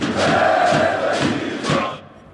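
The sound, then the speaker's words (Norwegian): A loud stadium crowd of football fans in Belarus roars and chants together at a league match held during the COVID-19 pandemic without lockdown, a dense sustained wall of voices with rhythmic surges, fading slightly at the end. “Here there's no lockdown, and the Football League is one of a handful in the world which remains in full swing, with fans in full voice.”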